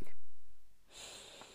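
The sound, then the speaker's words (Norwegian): A deep breath drawn in, an airy rushing inhale lasting about a second, with a softer breathy sound just before it and no talking. “Er du klar? Da puster vi inn,”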